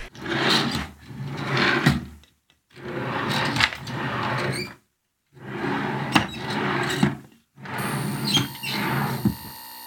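Four drawers squeak open one after another, each a harsh, grinding squeal of unoiled runners lasting about two seconds, separated by brief pauses. The sound is loud and there is no talking.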